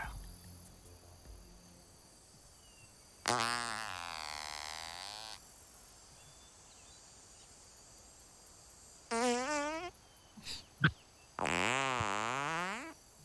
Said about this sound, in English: Each member will be able to upload three farts. Each member will post a picture to their farts.